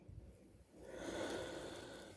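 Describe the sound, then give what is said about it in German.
A single drawn-out yawn, heard as a soft, breathy rush of air that swells and lingers for over a second. It is quiet, with no talking. “Ja, und ein Gähnen läuft durch mich durch”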